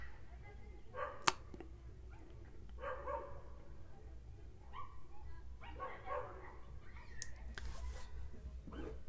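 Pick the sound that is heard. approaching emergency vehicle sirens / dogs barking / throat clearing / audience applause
dogs barking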